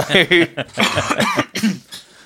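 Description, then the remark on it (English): A fairly loud fit of lingering COVID coughing: several rough, throaty bursts in quick succession, tailing off into softer hacks, with no talking over them. “…'s cough there, a little bit of COVID cough still lingering”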